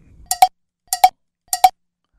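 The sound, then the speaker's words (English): A bell is struck in three quick double dings, evenly spaced about half a second apart, each a bright, clear metallic ring that cuts off quickly. No one speaks. “There's the three bells category. That, that's a lot of. That's actually like 80 bells right there.”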